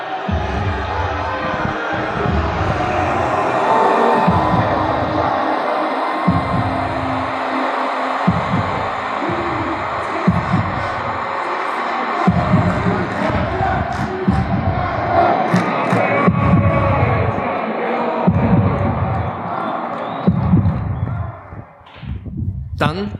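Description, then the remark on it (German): A simulated roaring football crowd in the Heartbeat, a room full of mirrors and screens recreating a fan's atmosphere at a football match, keeps up a dense wall of cheering and chanting while a deep, loud heartbeat thumps steadily underneath in a slow, regular pulse before fading near the end. “Ein Raum voller Spiegel und Bildschirm sollte die Atmosphäre als Fan in einem Fußballmatch nachspielen.”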